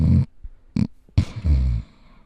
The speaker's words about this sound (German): seichte, gleichmäßige Schnarchgeräusche von den Freunden des Drachen anhören und so vielleicht besser einschlafen. Hm. So ein Schnarchen hat echt was Beruhigendes.